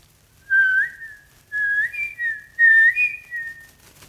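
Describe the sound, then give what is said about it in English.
Birdlike calls played on a whistle: three clear phrases with sliding, warbling pitch, each lasting about a second, separated by short pauses, with no talking. “We would normally come back in with the kind of the bird sounds”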